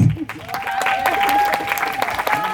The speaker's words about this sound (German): also ich bin selbst durch einen Vortrag von dir in das Thema reingerutscht. Muss ich sagen, bitte nochmal einen Applaus.